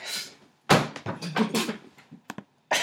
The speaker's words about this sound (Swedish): Dunka glaset i bordet och sen...